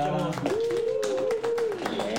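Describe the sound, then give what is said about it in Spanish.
Scattered clapping from an audience welcoming a band fills the moment with dense, irregular bursts, while a voice holds a drawn-out tone above the applause throughout. “Uh, aplausos, eh,”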